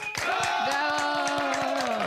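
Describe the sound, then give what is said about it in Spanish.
An audience of about 600 people at a La Mejor FM event breaks into steady applause, a dense run of claps lasting a couple of seconds at an even, fairly loud level, with a sustained cheering or tonal sound held over the clapping. “un aplauso por favor todo el público que está aquí con nosotros.”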